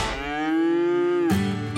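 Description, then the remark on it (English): A single cow lets out a long, low moo that holds steady and then breaks into a rougher, deeper bellow near the end. No one speaks. “Our feed is different our approach to making sure that our cattle and steers are raised right.”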